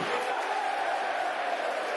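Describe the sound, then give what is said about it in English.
The Mill football crowd roars in a steady, dense wash of voices, loud and unbroken for the whole stretch, with shouts and jeers blended into the continuous noise. “You can hear what the Mill crowd are making of that.”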